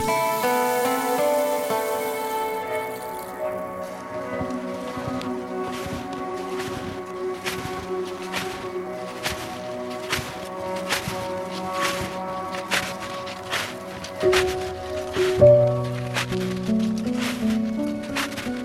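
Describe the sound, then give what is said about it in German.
Footsteps in snowshoes crunch through snow at a steady walking pace, each crisp crunch distinct, repeating for over a dozen steps over a faint, sustained tonal background. “Was Sie hören, ist Schnee. Schnee, der unter den Schuhen knirscht, Schnee, der in diesem Winter zu etwas Seltenem geworden ist.”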